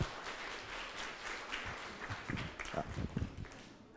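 Audience applause: a dense, crackling patter of many hands clapping, steady at first and swelling with stronger, louder claps toward the end, with no voices over it.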